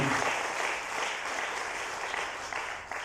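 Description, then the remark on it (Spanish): An audience applauds Christ Jesus at an afternoon service, a dense wash of many hands clapping steadily at an even level for a few seconds, with faint voices mixed in. “Denle un aplauso a Cristo Jesús, por favor, esta tarde.”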